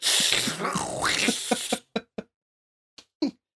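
A loud, harsh creature hiss lasting under two seconds, broad and breathy with a warbling sweep, followed by several short sharp clicks and bursts that trail off into quiet.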